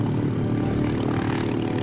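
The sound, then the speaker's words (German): A propeller airplane that has just landed, brakes engaged, its engines droning steadily, a dense low rumble with a rough, throbbing texture as the propellers keep turning and wind down, with no voices over it. “Und die Propeller drehen noch ein bisschen nach und wehen euch kühle Luft um die Nase.”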